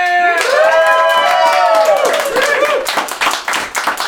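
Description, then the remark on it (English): Audience applause welcoming John Hastings: a dense, steady patter of many hands clapping with excited whoops and cheers rising over it, loud throughout and thinning slightly toward the end. “welcome, with absolutely no rehearsed applause or mentioning of a video game bar, it's John Hastings, everybody!”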